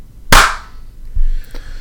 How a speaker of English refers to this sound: It's you know, um, you want to just start with a clap and be professional. Yeah, so I don't have to dig for it later.